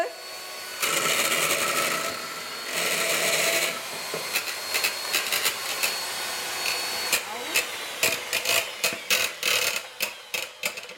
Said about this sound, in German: Und ja, so klingt ein Mixer halt bei uns. Versuch mal, ob du mit dem Mixer so ein paar Rhythmen machen kannst.